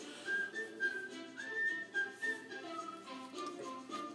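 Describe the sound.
A lively whistled tune from the live-action film adaptation of The Jungle Book carries a clear, bouncy melody of sustained high notes and quick glides over a soft musical backing, steady for the whole stretch.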